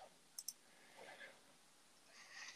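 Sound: typing on a keyboard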